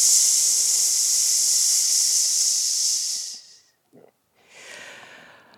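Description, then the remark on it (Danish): A voice makes a long, steady hissing "psss" exhale for about three seconds, fairly loud, then a brief breath and a second, softer hiss begins. It is a breathing exercise: saying the sound "ps" and using up all the air, supported by the diaphragm. “Og de af jer, der ikke har prøvet det før, I vælger bare at sige lyden PS, og så bruger I al jeres luft.”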